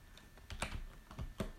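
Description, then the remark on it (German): Rapid clacky keystrokes on a gaming keyboard, about a dozen sharp clicks in an uneven burst, with no voices over them. “Ich habe auch ähm, eine Gaming-Tastatur und Bildschirm und sowas bekommen.”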